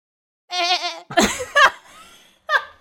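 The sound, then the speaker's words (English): A person imitates a goat's bleat with a wavering, vibrato-laden vocal cry, followed by bursts of laughter and a short final bleat-like yelp. “Um, so I'm thinking um, maybe monsters get really alarmed when you start bleeding like a goat.”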